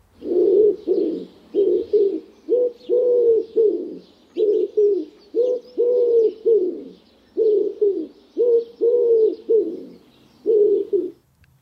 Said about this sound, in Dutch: Nou, dan gaan we nog even één keer luisteren naar, eh, naar het geluid van de houduif. En ook even opletten of je boe aan het begin hoort en aan het eind.